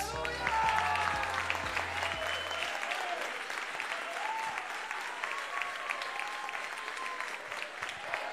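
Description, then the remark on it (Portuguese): Sustained applause from a large audience at a leadership conference welcoming a pastor, dense and steady clapping with some cheering, while a low musical tone plays underneath for the first few seconds before fading out. “recebam com aplausos na segunda conferência de liderança o pastor Sérgio Luiz”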